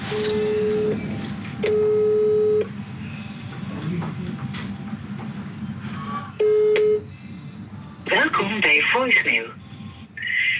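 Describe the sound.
A phone call being placed to the speaker's wife: three long, steady mid-pitched ringing tones with pauses between them over a low hum, then a voice begins speaking near the end, a Dutch voicemail greeting saying she is not available.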